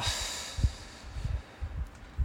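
A soft, airy hiss of someone drawing in on a cigarette, strongest at the start and then tapering off, with a few faint low thumps underneath.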